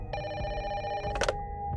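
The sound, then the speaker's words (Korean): A home landline phone rings at about 2 a.m. with a steady electronic trill, a sustained high tone that continues for about a second before a brief burst, then a fainter ring trailing off, with no voices. “그렇게 시간이 흐르고 새벽 2시쯤 갑자기 애인의 집 전화가 울리기 시작했습니다.”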